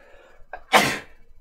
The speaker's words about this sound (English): I'm about to sneeze.